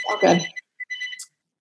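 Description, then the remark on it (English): A phone rings in the background with a short burst of bright, chiming electronic tones, followed by a few brief higher beeps. It's moderately loud, with no talking over it. “Sorry about my phone ringing in the background.”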